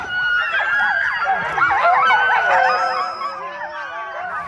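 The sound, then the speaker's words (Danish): A noisy chorus of many sled dogs barking, yelping and howling at once while someone feeds them, overlapping continuously, with some high whining cries mixed in. “Der står nogen og fodrer hunde derovre.”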